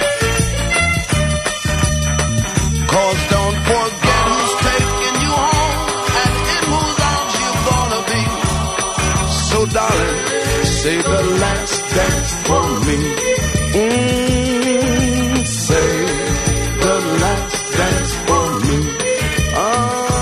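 A full, loud band recording plays throughout, with a bright, high metallic triangle ringing steadily over the dense instruments for the whole twenty seconds. No one speaks.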